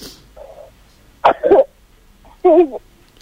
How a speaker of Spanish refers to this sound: Acá, con un poco de tos. Un poquito de tos, te escuchamos toser un poquito. Bueno, viste, son estos cambios de, clima que hacen estas cosas, ¿no?